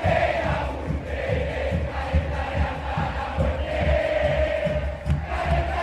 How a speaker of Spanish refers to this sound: hay algo que me parece maravilloso de las hinchadas argentinas es la creatividad y lo hermoso que suena escuchar los cantitos de cancha. Muchas veces la hinchada toma canciones populares y las adapta con sus letras para el equipo